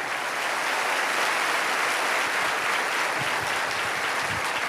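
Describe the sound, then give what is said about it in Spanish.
A crowd claps steadily and loudly for the whole stretch, a dense, continuous wash of many hands with no pauses and no clear voices above it. “Aplaude más que eso si lo crees, que se escuche en el mundo.”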